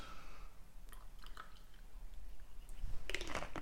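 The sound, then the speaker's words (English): Pineapple juice is poured to top up a glass holding orange juice and ice cubes for a drink with grenadine, a wet, gurgling stream with light squishy drips, ending in a cluster of bright clinks from the cubes. No one speaks. “And then pretty much top it up with some pineapple juice.”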